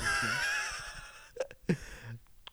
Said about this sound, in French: Pourquoi il y a un chat dans l'appartement?